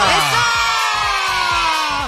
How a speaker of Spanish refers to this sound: Recibimos con un fuerte aplauso a Natalia Borda.